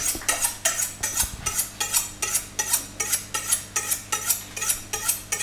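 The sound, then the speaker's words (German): A chef's knife chops vegetables on a cutting board for balsamic vegetables to go with lamb shanks, in a quick, steady rhythm, about a dozen and a half sharp taps over a faint low hum, with no talking. “Je schärfer das Messer, desto weniger Tränen.”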